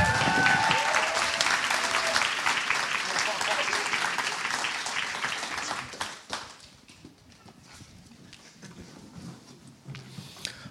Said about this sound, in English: Let's give another loud round of applause. Thank you.